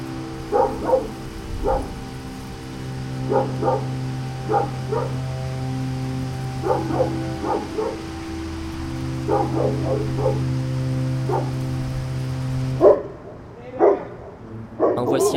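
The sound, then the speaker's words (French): Dogs bark on a Saturday night in Elmore in quick clusters of sharp yaps, repeating every second or two over a steady low hum, then a couple of final louder barks near the end. “Les chiens ont assurément une place le samedi soir à Elmore.”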